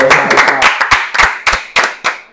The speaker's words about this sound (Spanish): Creo que, creo que llega la pizza del pitch. Llega... aplauso, eh, eh aplauso.